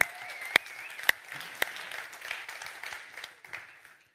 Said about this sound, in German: Und auch hier haben wir wieder einen Effekt eingebaut. Ist gut. ja, Komm, lass uns mal den Technikern einen Applaus geben dafür.